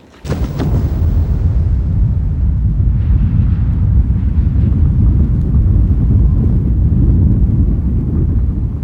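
A sudden, massive roar bursts in and holds as a continuous deep rumble, loud and sustained: a snow avalanche of 7,500 tonnes breaking loose from the mountain Storeballak and thundering down the mountainside at 150 km/h, with no voices.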